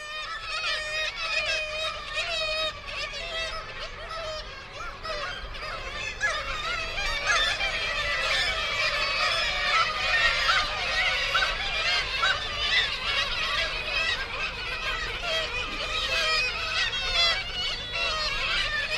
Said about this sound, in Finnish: mutta tämä kaikki, mikä tässä kuuluu, niin se oli ihan vieressä. Ja nämä linnut oli tavattoman rohkeita, eli tätä äänitettä pääsi tekemään ihan 10 metrin päässä. Mutta kuunnellaan, miten voimakas äänisiä nämä pikkukajavat on.